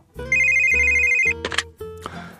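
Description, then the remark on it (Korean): A telephone rings loudly, a bright electronic ringtone with steady melodic tones in short repeated bursts, briefly interrupted by a rustling clatter, with no voices. “그런데 오늘따라 유난히 그런 전화가 많이 왔습니다.”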